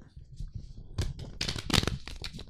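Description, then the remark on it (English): A deck of cards being shuffled, a quick series of papery riffles and flicks building to a dense burst, with no talking. “I would shuffle the deck.”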